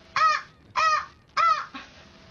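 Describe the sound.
Three loud, evenly spaced honks, clear, each a short nasal blast, from a person imitating a goose. No talking, just the honks with brief pauses between them.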